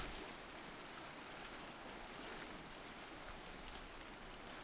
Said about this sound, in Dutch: Je kijkt naar de branding en je ziet hoe de golven het strand opspoelen. En hoe het water zich meteen daarna in hetzelfde tempo weer terugtrekt. Op en neer gaat het water telkens weer.